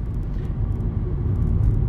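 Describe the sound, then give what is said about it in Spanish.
A car rushing up fast from behind on a road wet from rain: a steady, deep engine and road roar that swells slightly louder toward the end, with faint hiss above it and no talking. “viene uno, está el suelo mojado porque ha llovido, viene uno a toda leche por detrás, resulta que hay unos mm, badenes de estos para que no vayas a más velocidad y el tío ha frenado, pero vamos, de milagro.”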